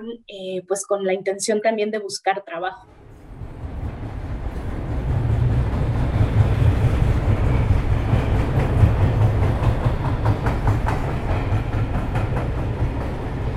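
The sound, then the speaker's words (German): A voice speaks briefly, then a freight train called La Bestia, which travels a very long route between Canada and southern Mexico, rolls past: a loud, steady rumble with rhythmic clattering of wheels on the rails that continues to the end. “Es handelt sich um einen Güterzug, der auf einer sehr langen Strecke zwischen Kanada und Südmexiko fährt.”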